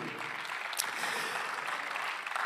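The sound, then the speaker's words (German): An audience claps steadily as applause for God, a dense wash of many hands applauding at an even level throughout, with no voices standing out. “Lass uns Gott für das wirklich einen Applaus geben.”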